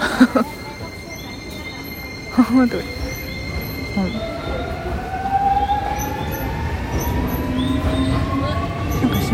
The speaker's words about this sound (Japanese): 出てもう一回入って今はホームにいますすごいなんか5時49分の電車だ